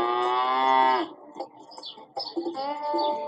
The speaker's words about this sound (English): ¡Yay! This is a cow. Good job.